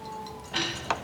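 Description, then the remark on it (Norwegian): Julius knocks twice on Vinter's door, the second knock sharper than the first, set against a faint steady background hum with no voices. “Julius banker på hos Vinter?”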